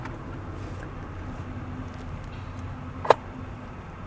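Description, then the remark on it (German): Steady low rumble inside a car as a passenger is being driven, engine and road noise droning evenly throughout, with a single sharp click near the end and no voices. “Auch wenn die moderne Gesellschaft voller Multitasking-Dingen ist, so wie ich jetzt übrigens auch im Auto sitze und diesen Podcast bespreche, also die Zeit nutze, keine Angst, ich fahre nicht selbst.”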